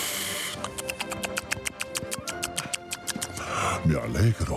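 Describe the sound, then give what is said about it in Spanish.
Rapid, steady crunching clicks of radio host Carlos Herrera chewing food, repeating for a few seconds before a voice briefly sounds at the end. “Estaba masticando.”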